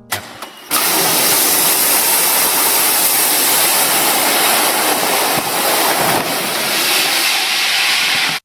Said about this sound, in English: That is the actual emergency slide.